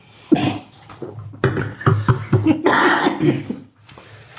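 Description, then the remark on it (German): Someone takes a few sips with audible gulps and breaths, then gives a short cough, all in quick, uneven bursts with no talking. “Husten und Trinken, das war tatsächlich gut. Atmen und Trinken.”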